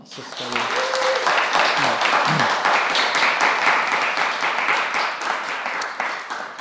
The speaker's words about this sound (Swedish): En applåd tycker jag.